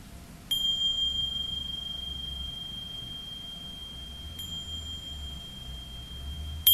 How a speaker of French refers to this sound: l'état mental change quand la cloche sonne.